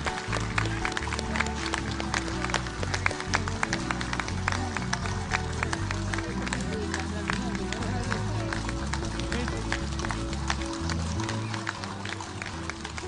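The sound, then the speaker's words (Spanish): A crowd applauds warmly and steadily for the Club de Guasos Constitución, Tradición y Cultura at a Chilean patriotic anniversary event honouring the Chilean army, dense overlapping claps running for about thirteen seconds over a low, continuous rumble of background noise and murmuring voices. “Le entregamos un fuerte y caluroso aplauso al Club de Guasos Constitución, Tradición y Cultura.”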